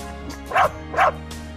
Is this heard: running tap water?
no